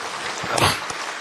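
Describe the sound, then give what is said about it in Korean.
A crowd breaks into applause for a couple embracing publicly, a dense wash of clapping that swells in the middle and holds steady for over a second, with no voices over it. “예, 우리 한번 박수로.”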